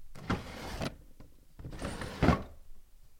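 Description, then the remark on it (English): A desk drawer slides open with a rumbling, scraping glide, then a second sliding stroke follows about a second later, fairly loud. “That is the sound of me opening a drawer in one of my desks.”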